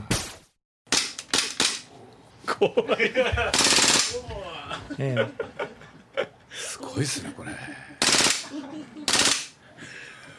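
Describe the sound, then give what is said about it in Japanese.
Sharp cracking shots from a model gun, fitted with outer parts made by a real manufacturer so it can be used like a rifle, fire in quick bursts: several loud pops in rapid succession, with people talking and laughing between volleys. “本当に打たれてるみたいな気がします、ね、その外側のパーツがその別に本物のメーカーが作って、うん、その銃をライフルみたいにこう使えるようにしたんです”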